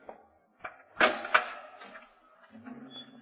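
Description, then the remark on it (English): A guard unlocks a heavy prison cell door with a few sharp metallic clanks, then it grinds open, with a low hum lingering afterward. “Guard, unlock door cell.”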